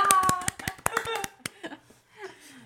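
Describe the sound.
A quick burst of hand clapping, a dozen or so sharp irregular claps in the first second and a half, with voices chattering over and after them.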